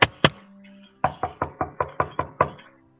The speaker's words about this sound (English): He remembered that deep in the forest was a house where the singing teacher lived. He went there and knocked on the door.